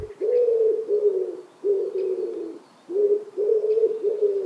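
A dove coos in low, throaty phrases, several rolling calls in a row with short pauses between, clear with no voices around it.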